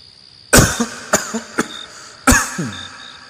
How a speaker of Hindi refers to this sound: महंत रुके थोड़ा खांसे